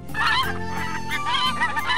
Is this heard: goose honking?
yes